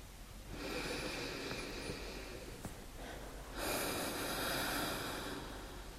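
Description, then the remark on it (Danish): An audible deep breath: a long airy inhale lasting a few seconds, followed by a slightly louder, breathy exhale. No one speaks. “Så må du gerne tage en dyb vejrtrækning, og når du er klar, så åbne øjnene og se ind i spejlet.”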